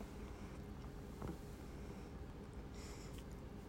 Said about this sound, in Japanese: 今がっつり暖房つけてるからないや暖房の季節ですよすごいこの音が入ってる気がする